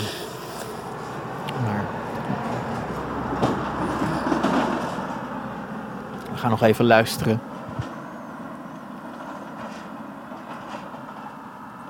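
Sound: car driving past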